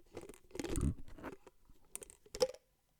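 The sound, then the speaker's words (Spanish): A plastic bottle of very cold water being opened at home: crinkling, crackling bursts of plastic and a couple of sharp clicks from the cap, with no voices, fading to silence. “Voy a abrir la botella.”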